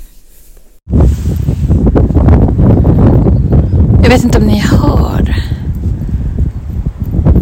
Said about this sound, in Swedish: men det här är verkligen skogsljud när det är som bäst. Det är någon slags eh, ormvråk, kan det heta det? Skata, någon slags typ av fög, fjäderfä som sitter i en gran här och eh, kväker ut sin existens.